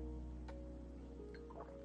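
Quiet sipping of water: a couple of small, soft wet slurps and a gulp over a low steady hum, with no talking.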